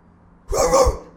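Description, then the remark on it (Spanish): A pet dog named Toby, which had never barked before, barks frantically at night at home: a short, gruff, fairly loud double burst lasting about half a second, with quiet before and after. “Pero, no te explico ladrando desesperado como si vos hubiera un ladrón adentro de mi casa.”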